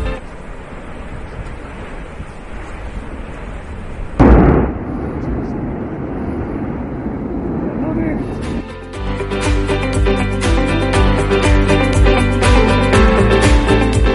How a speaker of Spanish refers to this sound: Y estamos escuchando el sonido del volcán de La Palma.